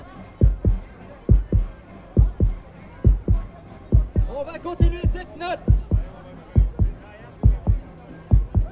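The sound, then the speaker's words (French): A steady heartbeat rhythm of paired low thumps, like a drum beaten by a marching crowd moving up rue Franklin towards rue du Calvaire, repeats at an even pace throughout, with a man speaking briefly over it midway. “On va remonter rue Franklin pour arriver rue du Calvaire avec le battement de cœur de manière digne et sobre.”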